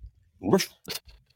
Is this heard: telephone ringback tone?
no